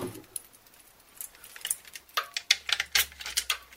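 A tuning key turning and loosening the six tension lugs of a pandeiro about 30 cm across: quiet, irregular metallic clicks and rattles, sparse at first, then a busier run of sharp ticks and scrapes. No voices.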